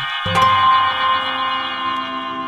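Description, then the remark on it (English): Pigeon whistles sound overhead as a steady, layered chord of airy tones, starting abruptly and then humming evenly with a faint shimmering waver, continuous and moderately loud with no voices. “listening to this eerie, beautiful sound of the pigeons with their whistles flying up above.”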